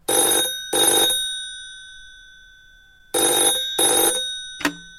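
A classic telephone bell rings in two double bursts, each pair of loud metallic trills separated by a pause, followed by a brief click at the end. No one speaks.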